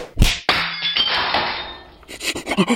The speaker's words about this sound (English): hey, hey, hey, why are you punching those pictures on the wall of the fallen with your paunch, paunchy?